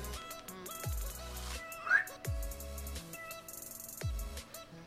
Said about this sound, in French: Alors là, vous entendez un ronflement, c'est mon chien qui ronfle en fond.